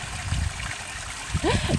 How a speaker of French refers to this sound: je passe devant un petit ruisseau où, euh, voilà, l'eau coule.